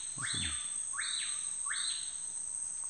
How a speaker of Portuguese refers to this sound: Que passarinho é esse? Que passarinho é esse? Balateiro o nome dele. Balateiro? Balateiro. Balateiro, bonito.